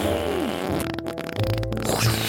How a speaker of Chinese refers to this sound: 妈妈也很会放屁，一放屁就把屋顶给掀开了。